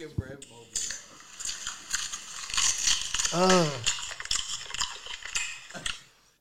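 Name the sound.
loud open-mouth chewing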